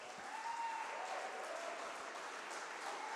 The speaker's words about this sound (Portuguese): E se você crê nisso, aplauda o Senhor Jesus bem alto.